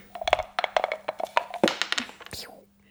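Dice are rolled, rattling and clattering in a quick, irregular burst of sharp clicks for about two and a half seconds, then settling into quiet and landing on a six. A faint steady hum runs underneath.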